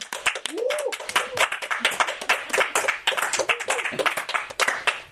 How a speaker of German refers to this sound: Deswegen einfach nochmal Applaus, oder?